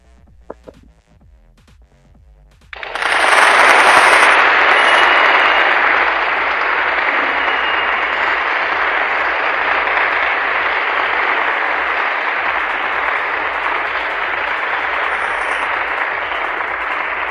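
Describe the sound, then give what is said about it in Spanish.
After a few seconds of faint, rhythmic low thumping, a crowd bursts into loud, dense applause following a recited poem, staying strong and steady, easing only slightly until the end. “¡Aplausos, por favor!”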